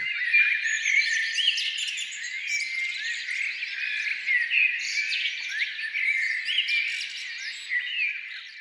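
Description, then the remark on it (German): Continuous melodic blackbird song played back for two minutes by a small motion-activated box, dense overlapping whistles and warbles in a steady stream, moderately loud, heard alone with no talking. “Die Zwitscherbox ist eine kleine und sehr feine Erfindung, die auf Bewegung hin für, ja, zwei Minuten den Gesang einer Amsel abspielt.”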